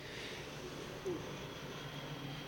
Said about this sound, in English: That's an airplane.